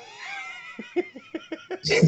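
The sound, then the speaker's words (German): A hungry cat, waiting for a door to be opened, gives a drawn-out, wavering meow, followed by a quick series of short laughing bursts and a brief noisy rustle at the end, all moderately loud. “ich muss der Katze mal die Tür aufmachen, der hat nämlich Hunger.”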